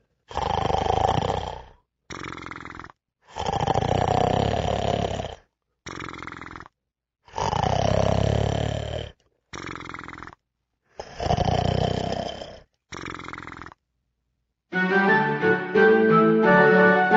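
Loud, growling snores of the Gruffaloes in the Gruffalo cave repeat four times in a steady rhythm, each a long rumbling breath followed by a shorter one, before music begins at the end.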